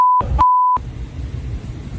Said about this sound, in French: Quel, il, y a, il, y a, quelques bips, là.